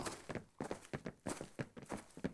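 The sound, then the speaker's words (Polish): Rapid, overlapping footsteps of four people running across fields toward buildings, with quick uneven thuds across the whole clip, moderately loud, with no talking. “Chwilę później cała czwórka biegła przez pola w kierunku znajdujących się na horyzoncie zabudowań.”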